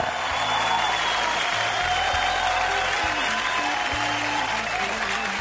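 Audience applause fills the whole stretch, a dense, steady wash of many hands clapping at an even loudness, with a low hum of background tones underneath and no clear voices.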